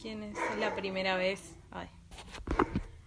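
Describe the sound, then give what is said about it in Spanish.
A small guard dog barks a few short, sharp times near the end at a passing motorbike, following a stretch of someone talking; the barks come in quick bursts partly overlapping the voice. “Y cuando pasa una moto se pone a ladrar, porque se pone molesto porque él es muy guardián, chiquito.”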